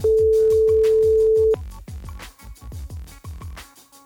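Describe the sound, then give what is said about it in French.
A single steady ringing tone of an outgoing phone call, placed by pressing the call button, sounds for about a second and a half, then cuts off, with rhythmic background music playing throughout and no voices. “Attention, j'ai appuyé sur le bouton, ça appelle.”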